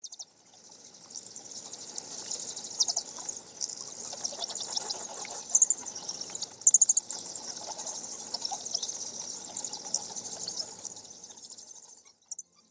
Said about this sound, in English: On this visit, I was able to get some good recordings of the bats themselves. I used a parabolic microphone for this, and it created some very pleasing results. Here's what that sounded like.